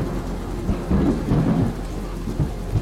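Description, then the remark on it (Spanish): A thunderstorm with lightning over huge waves at sea rumbles with deep, rolling thunder over steady rain, low booms swelling and fading in waves across the scene, with no voices present. “La rayería no cesaba y los relámpagos se incrustaron en el interior de mi cabeza reflejando imágenes en las descomunales olas que yo miraba atónito, estupefacto, como si se tratara de un enorme y vívido mural.”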